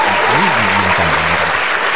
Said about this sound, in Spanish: Mira, mira, más aplausos, bravo.